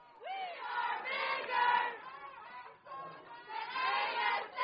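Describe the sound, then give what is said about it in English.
Around 50 to 60 protesters, mostly students, chant and shout together through megaphones outside Corwin Pavilion during a Senate meeting, in loud, rhythmic bursts, with a brief lull partway through before the chanting swells again, sustained. “Using megaphones, around 50 to 60 protesters, who appeared to be mostly students, discussed the following grievances”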